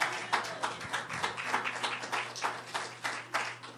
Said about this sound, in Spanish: Dense un aplauso, hermana. Yo pensé que iban a aplaudir.